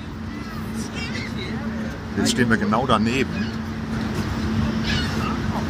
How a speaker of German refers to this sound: So, jetzt hörst du es wieder ein bisschen besser, hoffentlich was du hier hörst, ist der größte Wasserfall, den ich je gesehen habe.